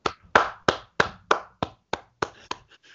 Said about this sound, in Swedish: Nej, så stort, ja vad ska jag säga, stor applåd till oss själva